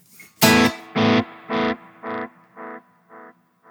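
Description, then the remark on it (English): A single distorted guitar chord rings out through the simple delay preset of a guitar pedal, then repeats about six times in steady echoes, each fainter and duller than the last, with a slight pitch wobble on the trailing repeats. No talking. “So the first one is just a simple delay.”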